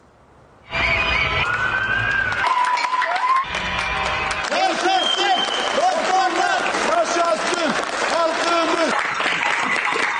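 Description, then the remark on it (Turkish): Sustained applause and cheering from people on balconies and at windows across Turkey at 9 pm, applauding health workers during the coronavirus pandemic, with shrill whistles and car horn blasts rising over the clapping, continuing loudly throughout after a brief quiet start. “Alkışlar, ıslıklar, kornalar.”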